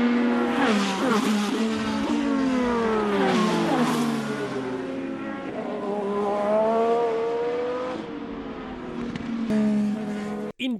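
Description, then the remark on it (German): IndyCar race car engines in Indianapolis rev with a loud, high-pitched whine, pitch climbing and dropping in repeated sweeps that overlap, continuous for the whole stretch with no talking, then cutting off abruptly. “Zuerst aber ist das der Sound des heutigen Tages.”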